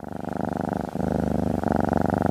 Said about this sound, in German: Eine schnurrende Katze auf meinem Schoß ist für mich schon fast der Inbegriff eines heiligen Moments. So absichtslos und still, gleichzeitig so lebendig und liebevoll.